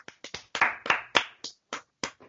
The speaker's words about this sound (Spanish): Ya, yo no, estaba aplaudiendo con las manos.